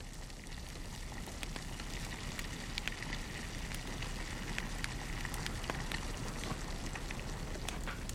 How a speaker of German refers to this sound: Er führt sie zu seiner Berghöhle, in der auf dem offenen Feuer der Teekessel dampft.